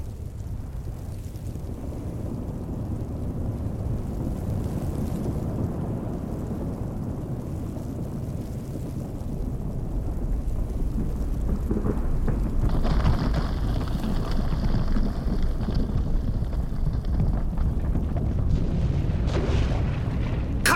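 A deep, continuous avalanche rumble from above, like the engine of a large truck, roars steadily without pause, heavy low-end thunder that swells louder about halfway through, with a hissing rush of snow layered on top.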